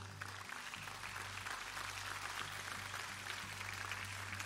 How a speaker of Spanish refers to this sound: Si tú en línea tomaste esta decisión, yo quiero felicitarte. Por favor, puedes dar un aplauso.